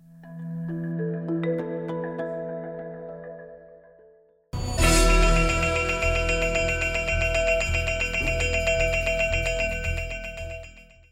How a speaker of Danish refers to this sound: klokken den ringer, kunne vi lige høre her. Øh, det er jo en lyd, som du kender øh, ret godt, øh, tror jeg godt, man kan sige.